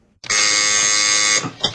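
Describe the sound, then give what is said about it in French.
A harsh electric buzzer at the closed entrance of a lycée (high school) drones steadily for about a second, loud and buzzy with a rich harmonic edge, then cuts off, followed by a brief faint click; two late students are ringing to be let in. “Seulement, les portes sont désormais fermées. Ils décident alors de sonner.”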